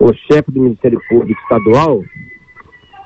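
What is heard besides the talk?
rooster crowing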